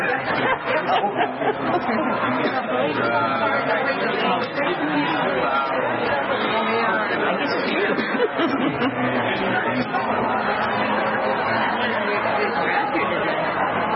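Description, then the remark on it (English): A steady wash of crowd chatter, many overlapping voices blending into a loud, continuous murmur with occasional bits of laughter rising out of the babble. “it's a very good crowd.”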